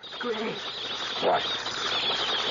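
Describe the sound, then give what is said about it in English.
Wet cork rubbed against the side of a glass bottle, giving a few shrill, wavering squeaks that mimic rats, fairly loud over a steady hiss; a radio sound effect for rats. “you can take a, a cork and, uh, and, wet it and squeak it against um, the side of a bottle or a saucer.”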